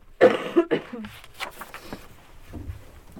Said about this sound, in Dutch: Ik hoest af en toe een beetje, maar negatieve test.